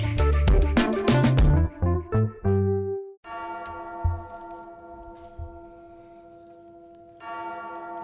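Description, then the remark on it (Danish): Church bells peal in a quick, clanging cluster of loud overlapping strikes, then settle into a sustained, humming resonance that lingers for several seconds. No one speaks. “Kan I høre, det ringer ind?”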